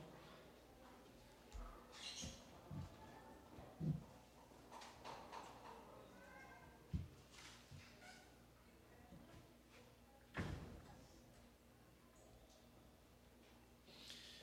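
door being closed

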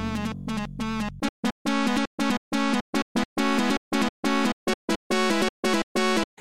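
video game music

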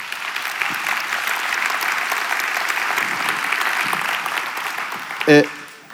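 audience applause

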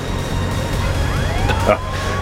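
police car siren

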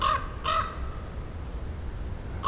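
raven calling

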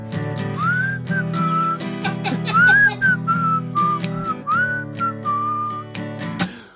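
human whistling a tune

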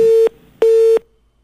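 telephone busy signal tone

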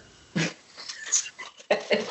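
dog making noises

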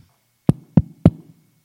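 knocking on a door

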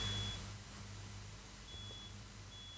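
fire alarm beeping

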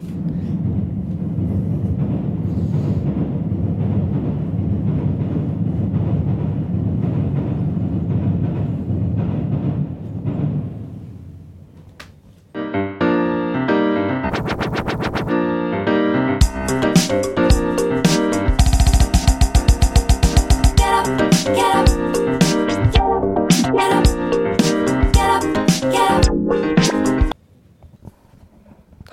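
train running on rails

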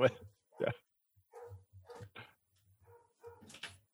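dogs barking

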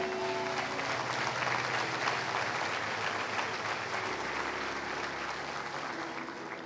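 audience applauding

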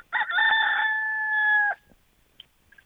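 rooster crowing

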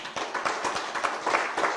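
applause

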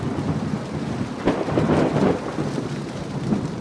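pounding rain with thunder

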